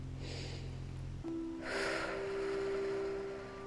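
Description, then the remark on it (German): A long, deep breath drawn in, a soft airy hiss lasting over a second after a shorter breathy sound, with a steady low hum in the background and no talking. “Und darum schnaufen mal ein.”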